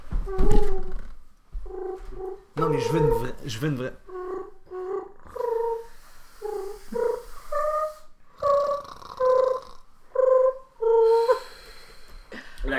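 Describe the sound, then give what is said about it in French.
A person imitates a soft purring coo with their voice, cooing into someone's ear like a lullaby to put them to sleep, repeating short warbling coos in a steady string, moderately loud, after a few spoken words at the start. “Ben, ben, en, fait, en fait, je fais juste roucouler dans son oreille.”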